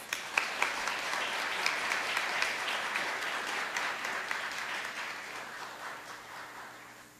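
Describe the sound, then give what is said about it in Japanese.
An audience of new adults breaks into sustained applause for three new adults who presented messages, a dense wash of many hands clapping at a steady level that gradually thins and fades toward the end, with no talking over it. “私たちと同じ新成人の3人にメッセージを発表していただきました同じ思い共感できる部分も多かったのではと思います発表してくださった3人の方に今一度大きな拍手をお願いします”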